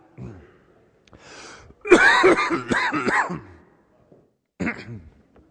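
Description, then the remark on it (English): A person has a coughing fit, several harsh, rapid coughs and throat clearing in a burst, followed after a pause by one more rough cough, fairly loud. “All right, you're going to have to give me a minute.”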